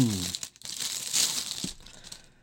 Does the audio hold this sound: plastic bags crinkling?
yes